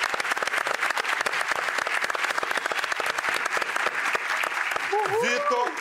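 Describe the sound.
A crowd applauds Vitor Hugo, the reserve member of a Brazilian sprint team, steadily, a dense wash of many hands clapping at once, until a man's voice begins speaking over the tail end of the applause.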